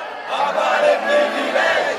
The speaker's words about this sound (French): Avec beaucoup d'enthousiasme, certains députés crient ou